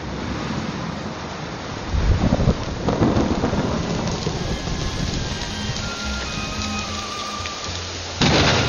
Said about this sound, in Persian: راستی راستی داره بارون میادا